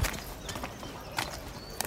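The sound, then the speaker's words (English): A horse's hooves clip-clop on hard ground, a handful of sharp, uneven knocks at a slow walking pace, with no voices over them. “take my horse.”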